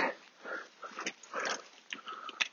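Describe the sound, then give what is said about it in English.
Excited dogs snuffle, whine and make quick mouthy sounds while stones are being thrown around them, in short irregular bursts over a couple of seconds with no one talking. “Uh, do be careful about throwing stones around excited dogs.”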